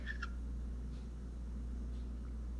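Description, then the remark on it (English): A small bird gives a couple of quick, bright chirps at the start, followed by a few fainter peeps, all over a steady low indoor hum with no talking. “Never, shut up, bird.”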